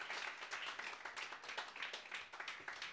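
A few people clap together in a brisk, steady burst of applause lasting several seconds, the claps dense and overlapping with crisp bright attacks and no talking.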